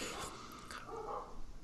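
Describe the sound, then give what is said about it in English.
Dogs bark and growl in the background, fairly faint, in a short burst of overlapping yaps and low rumbling. “apologies if you can hear the dogs in the background as well.”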